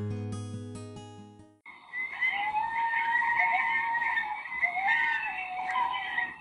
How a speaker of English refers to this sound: Have you ever heard a coyote sing? Did you know that coyotes are also called North America's song dogs? They communicate through unique howls, yips, and barks.